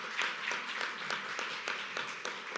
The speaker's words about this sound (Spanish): Den un fuerte aplauso al Rey de la Gloria.